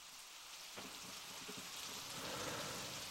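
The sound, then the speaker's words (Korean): Light rain falls steadily, a soft continuous hiss with faint patter that swells slightly after the first moment, with no voices present. “아, 비가 오늘 약간 오는 날이에요.”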